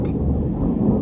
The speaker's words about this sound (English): Sorry if you can hear that thunder in the background.